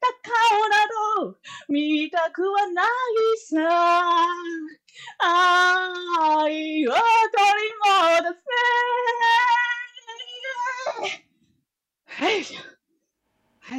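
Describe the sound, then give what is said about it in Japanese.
A voice sings a melodic line loudly from a kitchen, heavily distorted and clipping, with harsh crackle on sustained notes; the singing stops after about eleven seconds, followed by a short spoken word. “かなり音割れておりましたけど。”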